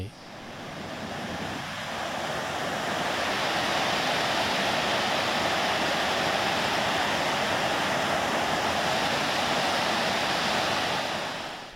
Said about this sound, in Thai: แก่งน้ำตกแห่งนี้ในความหมายของวิสทอฟ คือแก่งน้ำตกคอนพระเพ่งในลำน้ำโขงช่วงที่ไหลผ่านแขวงจำปาสัก หัวเมืองตอนใต้สุดของสาธารณรัฐประชาธิปไตยประชาชนลาว